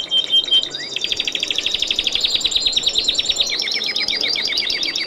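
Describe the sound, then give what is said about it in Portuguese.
Timbrado canaries of all colours sing continuously, a rapid rolling trill of bright repeated notes that pulses steadily without pause, fairly loud, with no voices. “Por sorte, os timbrados, canários de todas as cores, estavam felizes da vida e não paravam de cantar.”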